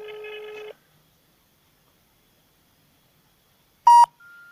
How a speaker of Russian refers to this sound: Все, телефон не отвечает, номер не отвечает.